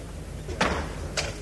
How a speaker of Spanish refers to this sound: llegan más costaleros, al mandar el Cristo de las Aguas, que ya se recorta sobre la oscuridad de la noche. Suena de nuevo el martillo, tres golpes